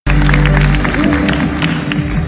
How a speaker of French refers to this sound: Je garde le sourire en attendant que les applaudissements cessent pour pouvoir lancer ma première phrase que je ne cesse de me répéter dans ma tête pour qu'elle me donne l'impulsion pour la suite.